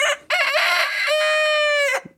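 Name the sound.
rooster crowing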